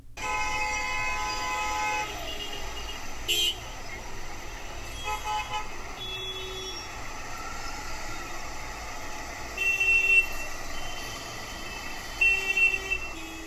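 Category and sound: vehicle, busy city street traffic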